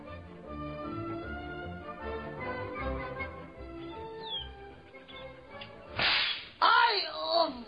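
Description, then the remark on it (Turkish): Two sharp whip lashes crack near the end as a man whips himself, the second followed by a pained vocal cry, after several seconds of steady background music. “Yarın köye giderken yine ağaçlıklı bir yerde siz görmeden kendimi kırbaçlarım efendim.”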